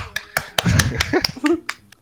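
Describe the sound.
A short run of about eight or nine sharp hand claps at a steady, moderately quick pace, close and fairly loud, with some voice-like murmuring underneath the middle claps.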